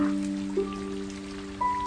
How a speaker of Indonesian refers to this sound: Hari hujan datang kepadamu sebagai penyembuh Menyelinap lewat jendela kaca, masuk di lemah hatimu yang tersentuh.